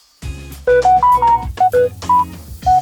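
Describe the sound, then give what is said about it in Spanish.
A phone's message notification tones ring out: a quick, bouncy sequence of short, bright electronic notes at varying pitches, loud, with no one talking. “Entonces yo estoy hablando con alguien y de repente, ¡oh! me llegó un mensaje, permítame tantito, ese sonido, ese sonido, ese sonido,”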